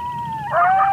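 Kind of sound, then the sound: animal, coyote howling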